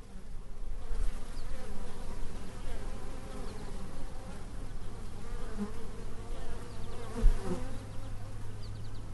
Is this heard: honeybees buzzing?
yes